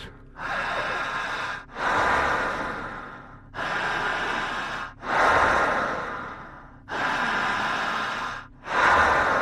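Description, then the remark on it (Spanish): Heavy, forceful breathing: about six long, loud inhales and exhales in a steady rhythm, each separated by a brief pause, with no talking. “Paciente quien empiece a respirar bien al minuto número uno que todavía no llegamos, empezará a presentar algo llamado midriasis, fuerte la respiración, siempre fuerte y siempre intensa.”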